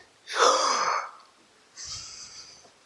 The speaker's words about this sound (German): Und dann habe ich geübt. Richtig tief durchatmen.